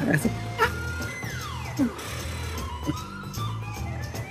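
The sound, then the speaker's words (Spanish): A person imitates an eagle's cry with a long, high, piercing call that slides downward in pitch, over a steady low background hum. “Eso es una águila.”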